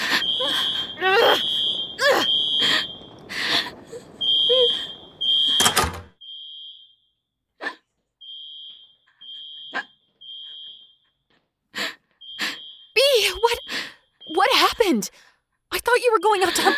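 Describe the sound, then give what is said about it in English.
A fire alarm sounds in short, shrill, repeating beeps, fairly loud, while voices and sharp bursts of noise break in over it. “Uh, put that out before the fire alarms go.”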